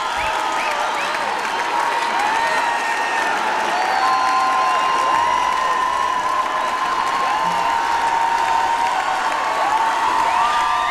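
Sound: concert audience applauding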